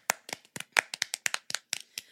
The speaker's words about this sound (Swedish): det jag skulle säga var att USA har ju faktiskt fått en ny president och det tycker ah. jag kan vara värt en liten applåd, eller, faktiskt.